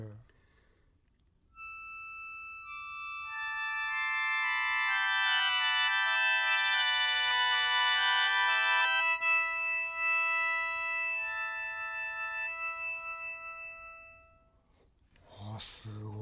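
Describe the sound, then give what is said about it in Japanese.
A sustained, shimmering cluster of reedy tones from a shō, a wind instrument of 17 bamboo pipes bundled together that sounds whether blown or inhaled, several pitches held together as a chord that swells, shifts and slowly fades, with brief voice at the very end. “あの吹奏楽器なのに複数の音を同時に出すことができる。”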